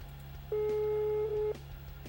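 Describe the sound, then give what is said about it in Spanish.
A single steady electronic ringback tone sounds for about a second over a low background hum, the kind heard in the earpiece while an outgoing phone call rings. “Mira, ya está, está sonando ya el teléfono.”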